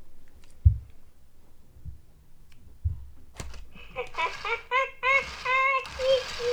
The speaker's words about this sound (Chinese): 还有可以发出那种叽叽咕咕不知道在干嘛的声音。